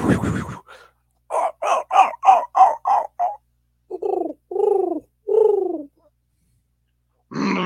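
A bird coos in a quick run of about seven short, throaty notes, then three slower, lower, drawn-out coos after a brief pause, as it flies back to the village. No one talks over it.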